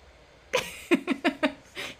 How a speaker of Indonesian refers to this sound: Aku kentut, aku kan manusia.